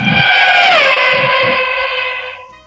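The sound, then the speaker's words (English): A four-channel FlySky RC ground transmitter radio switching on or off with a loud, buzzy electronic tone that dips slightly in pitch, holds steady for a couple of seconds, then cuts out. No one is talking. “That's my that's my radio when it turns on and off.”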